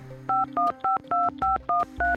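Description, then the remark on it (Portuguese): A phone number being dialed to call parents and a brother: a quick run of about eight touch-tone beeps, each a steady two-note electronic tone, separated by brief gaps, with no voices. “Meio que com medo, liguei para meus pais, liguei para meu irmão.”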